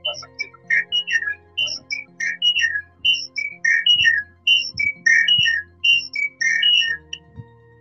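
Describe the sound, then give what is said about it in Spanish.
An eerie little whistled tune plays out in a long string of short, bright, high notes that hop up and down in pitch, moderately loud, with faint low rumbling underneath and no talking. “Parecía como un mensaje ahí medio raro, ¿no? Una cancioncita, ¿no? Ajá, Una cancioncita, como, como un silbido.”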